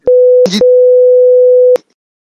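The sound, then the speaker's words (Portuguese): A loud, steady mid-pitched censorship bleep covering a name holds for nearly two seconds, briefly interrupted early on by a short clipped fragment of voice, then cuts off abruptly. “tu é um bipa esse nome, bipa esse nome”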